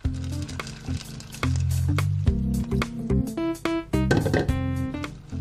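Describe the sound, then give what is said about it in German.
Water pours into a bowl of washed soybeans to soak them, a steady splashing and gurgling stream with ringing, shifting resonant tones as the bowl fills, continuous for several seconds with no talking. “Kommen jetzt in diese Schüssel Und dazu kommt nochmal Wasser, damit die Sojabohnen schön einweichen können.”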